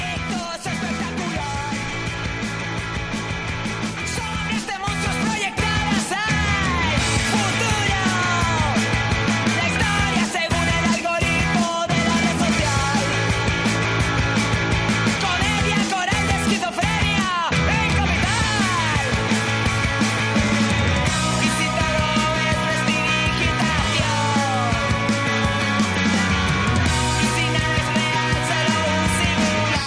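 A rock band from Madrid plays loudly and steadily throughout as background music for a radio promo spot, with pounding drums, dense guitar chords and a shifting bass line, and no one talking over it.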